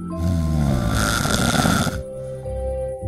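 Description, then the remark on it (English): A loud, drawn-out snore fills the space, rattling and nasal with a gritty burst in the middle, then trailing into a lower, wheezy exhale. “I guess you fell asleep.”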